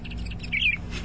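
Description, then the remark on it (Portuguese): High, bright bird chirps from a bird-call clock come in two quick bursts, moderately loud, over a faint low hum with no talking. “Os passarinhos estão revoltados aí no relógio dele.”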